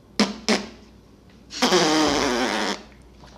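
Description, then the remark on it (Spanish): Two quick, sharp puffs followed by a long, loud, sputtering fart lasting about a second, raspy, with no talking. “El sonoro, güey.”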